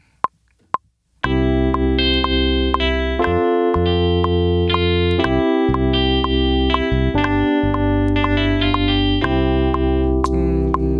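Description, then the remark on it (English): Two short clicks, then a loud, sustained distorted electric guitar-style amp synth lead preset patch, loaded to a channel strip, plays a melody over a steady low drone, with dense harmonics and brief gaps in the bass. “electric guitar, electronic guitar, acoustic, acoustic guitar, amp synth lead. Maybe. British combo synth lead.”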